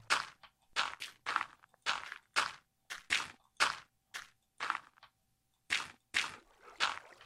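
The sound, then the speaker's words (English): A steady series of crisp, scuffing footsteps, about two per second, fairly loud, of a chicken walking around on a hard surface, with no talking. “Oh, the chicken. I'm like, who's footsteps?”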